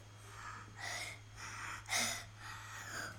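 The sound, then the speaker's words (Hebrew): A voice imitates the heavy, breathless panting of someone who has climbed to the tenth floor of a tall building, with about five loud, rasping breaths in a steady rhythm over a faint low hum. “ואז הוא בא לחבר שלו, מתנשף ומתנשף.”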